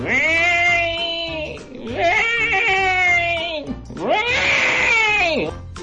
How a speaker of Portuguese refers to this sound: Gato, tio gato, uma porcaria do gato.